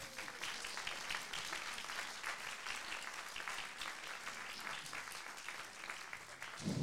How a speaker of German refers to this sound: So, jetzt wäre der Moment zu klatschen, meine Damen und Herren.